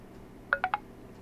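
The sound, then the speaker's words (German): A touchscreen signal tone after double-tapping a screen brightness slider and leaving the finger on the screen on the second tap: three quick, clear electronic beeps in rapid succession, like short dial-tone pips, over a quiet background hum. “habe ich einfach doppelt angetippt und beim zweiten Mal habe ich den Finger auf dem Bildschirm liegen lassen. Dann kommt dieses Signal”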